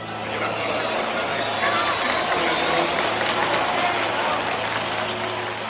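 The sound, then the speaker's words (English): A huge stadium crowd of 110,000 football fans at Aztec Stadium in Mexico City, at the unofficial 1971 Women's World Cup, buzzes steadily, a dense, continuous roar of thousands of voices and cheers, with no single speaker standing out. “That sound you heard was the buzzing crowd of 110,000 fans who packed Aztec Stadium in Mexico City to watch the unofficial 1971 Women's World Cup.”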